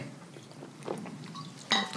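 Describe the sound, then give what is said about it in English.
A quiet sip of water: faint mouth and swallowing noises, then a single bright clink as a glass is set down. No one speaks. “Sorry, I had to take a drink of water.”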